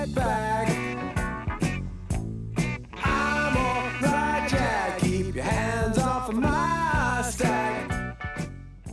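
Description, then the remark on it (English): A classic rock song plays at a steady, full level, with a driving rhythm of bass and drums under layered guitars and a bright melodic lead, continuous throughout with no talking. “Here's here's uh, ….”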